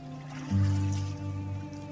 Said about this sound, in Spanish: la mujer vaciaba parte del contenido de la jarra en el lebrillo.